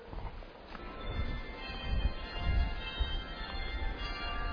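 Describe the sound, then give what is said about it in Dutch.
The city clock bells of The Hague chime in sustained, ringing tones that linger over a steady low rumble of outdoor street noise. No one speaks. “Zo, hoor eens eventjes zeg, we hebben hier gewoon de Haagse klok.”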